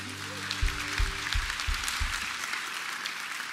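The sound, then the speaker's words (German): An audience breaks into steady, dense applause for God for several seconds, with low sustained musical tones and a handful of evenly spaced deep thumps underneath during the first half. “Lass uns unserem guten Gott mal einen Applaus geben.”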